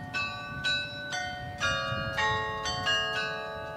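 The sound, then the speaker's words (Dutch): Church bells of the Sint-Anna church in the Flemish village of Baal ring in a steady, overlapping peal, not a carillon, with repeated bright strikes about every half second whose tones hang and blend together, moderately loud with no voices present. “Maar er staat nog een kerk, de Sint-Anna-kerk, en daar hangen klokken in.”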